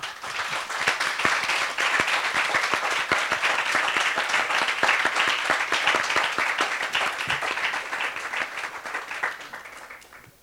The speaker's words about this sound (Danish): Jeg tror, vi er rigtig mange, der er glade for, at du alligevel vælger at stå her. Det synes jeg i den grad fortjener en klapsalve.